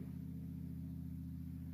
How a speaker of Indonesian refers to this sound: Oh, suara motor berderu semakin kencang. Seakan-akan kau mau datang menjemputku. Tapi itu hanya motor yang lewat.